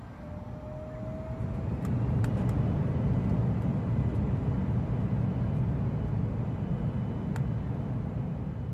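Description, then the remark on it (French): A steady, loud low-pitched airplane engine roar, a sound effect for a Lotus Airways flight, holds throughout with a broad rumbling drone, joined by a few brief sharp clicks; a faint tone drifts in at the very start. “Nous vous remercions de votre attention et nous vous souhaitons un agréable voyage à bord de Lotus Airways.”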